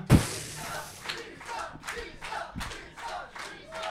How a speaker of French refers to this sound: Et on crie du sang. du sang. Vous entendez une foule avide de sang à l'extérieur qui clame.